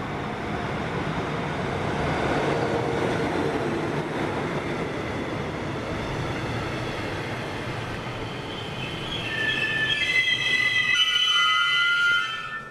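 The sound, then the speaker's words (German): A train rumbles steadily along the rails, loud, with high metallic wheel squeals rising in the last few seconds before the sound cuts off. “Wer nicht mit dem Auto anreist, nutzt die gute alte Eisenbahn”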